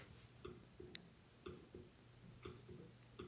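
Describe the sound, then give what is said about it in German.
A series of soft trackpad clicks, about eight in a few seconds at an uneven pace, each a short dry tick against a quiet background with no talking. “Achtung, ich klicke mal.”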